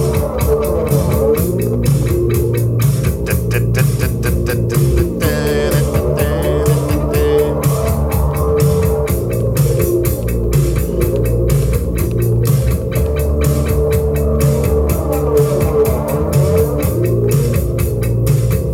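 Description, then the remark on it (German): A long, loud instrumental intro of a German song plays with no vocals, with saxophone, built on a steady driving beat and sustained, layered tones that hold at an even volume for the whole stretch. “Dann spiele ich nochmal eben was Deutsches.”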